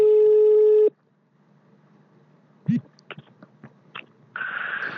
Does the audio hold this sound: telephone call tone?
yes